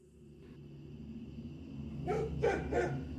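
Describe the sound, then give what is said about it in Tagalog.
A black dog at a compound barks three times in quick succession, looking toward an abandoned building, over a steady low background hum; no one speaks. “Pagkatapos ay tsaka siya magkakakahol, lalo na paggabi.”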